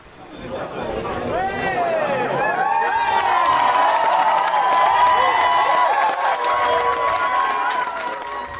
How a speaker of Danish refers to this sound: Der er glæde og jubel.